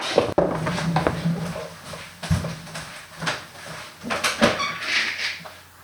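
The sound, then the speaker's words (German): A door opened to let a cat back in after it scratched at the door: a sharp click of the latch, then soft knocks, rustling and handling clatter, with a couple of dull thuds as it swings and settles. “da kratzt es an der Tür und ich muss jetzt erstmal die Dolly, nein, den Pauli wieder reinlassen”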